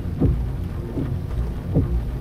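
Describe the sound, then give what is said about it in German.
Light drizzling rain hisses steadily over a low, rumbling background, heard from a car being driven on a rainy March morning, with the soft swishing sweeps of the windscreen wiper recurring about every second. It is continuous, with no voices. “Der Regen nieselt vom Himmel, der Scheibenwischer zieht Schlieren.”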